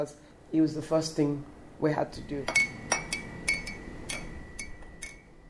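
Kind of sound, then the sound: household object, teacup clinking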